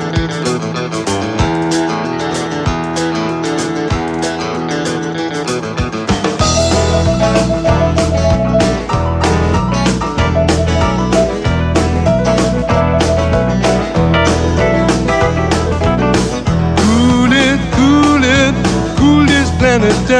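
A song plays loudly and continuously, starting with a lighter instrumental intro before a full band with steady bass and drums kicks in around six seconds; no one talks over it.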